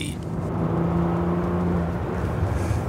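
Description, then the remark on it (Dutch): A Bentley Continental GT engine drones steadily during a test drive, a loud, deep hum with low tonal harmonics that shift pitch slightly near the end, with no voices. “Maar van buiten klinkt dit apparaat echt geniaal.”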